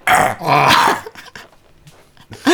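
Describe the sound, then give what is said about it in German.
A person loudly imitates a deer's call, a few rough, growly barking bursts with a short quieter stretch between them, alone without ordinary speech. “Und die Rehe!”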